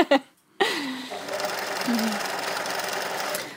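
sewing machine running

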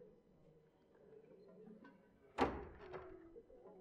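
car door shutting

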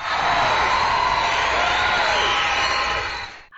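clapping

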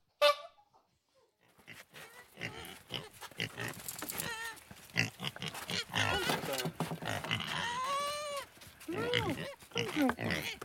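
pigs grunting

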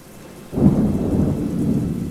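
heavy rain

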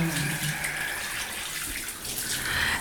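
shower water running

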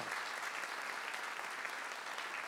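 audience applauding

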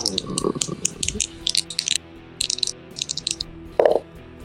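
dice being rolled

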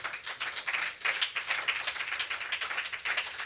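audience applause

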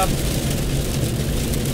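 rain falling

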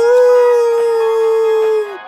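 dog howling

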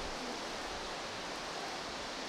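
heavy rain

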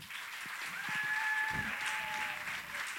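audience cheering and applauding

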